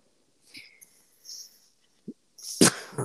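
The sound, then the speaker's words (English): A single sharp, explosive sneeze bursts out near the end, preceded by a few soft breathy intakes and faint rustles; fairly loud, with no speech. “Excuse me.”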